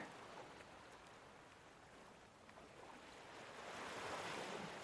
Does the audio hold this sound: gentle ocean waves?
yes